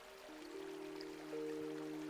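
A soft, steady babble of a flowing river stream, faint and continuous throughout, with a few sustained low tones humming quietly underneath.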